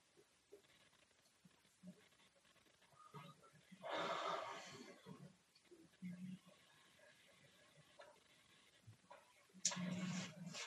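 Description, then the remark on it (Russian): A breathy, strained inhale swells and cuts off short, an attempted yawn that won't quite finish, then comes again a few seconds later, fairly loud against quiet background. “Почему-то зевнуть до конца не получается, не понимаю, почему.”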